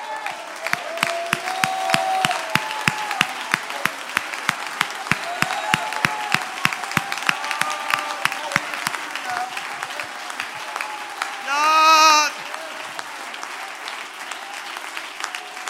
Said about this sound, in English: If you've got a request, and you want to send it to God, you ought to open your mouth and you ought to send it with a hand clap.